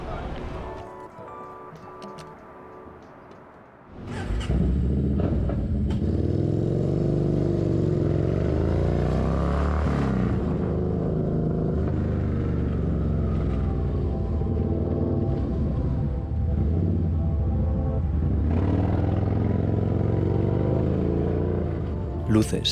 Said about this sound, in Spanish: metal, hormigón, asfalto, cucarachas, ratas, perros, humanos. Todo ello se revela frente a mí mientras domo un motor desnudo enganchado a dos ruedas.